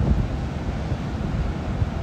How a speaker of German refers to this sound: Im Hintergrund hört ihr das Meer rauschen.